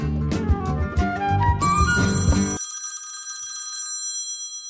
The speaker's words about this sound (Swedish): Nu, nu ringer det. Vänta, ska, ska, ska jag kolla vem det är? Nu ringer det någon här. Ja, jag kör på högtalare.